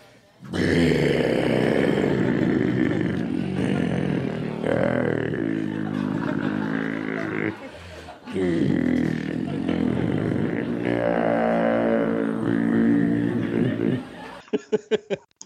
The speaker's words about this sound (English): Have you heard him do the bit where he uh, he slows down the record and it sounds like demons?